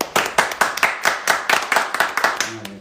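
Steady, crisp hand clapping, about a dozen sharp claps in an even rhythm, close and fairly loud, like a small group applauding, with a faint voice starting just as it ends.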